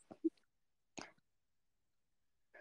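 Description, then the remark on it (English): A few soft, wet smacking sounds of someone chewing food while having supper, arriving in brief separate bursts with quiet pauses in between. “Because I'm like, you can't listen to me chewing.”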